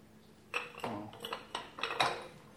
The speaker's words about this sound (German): Und deswegen fangt ihr mit den Steinen an, ins Glas zu legen.